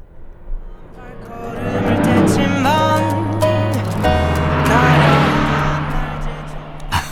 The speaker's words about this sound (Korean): DJ 천이가 옆차를 따라잡아 보겠습니다. 자, 가까이 오는군요. 이제 음악 소리 들릴 거예요.